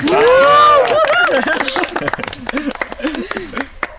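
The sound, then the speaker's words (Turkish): A small studio crew claps steadily for a few seconds, with loud whooping and cheering voices on top, starting with a long rising shout before the clapping takes over. “büyük alkış.”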